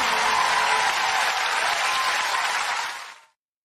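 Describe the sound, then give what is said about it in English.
A concert crowd claps enthusiastically in a dense, steady wash of applause that holds strong for about three seconds, then quickly fades out to silence. “You know the best part of that was how happy the crowd was.”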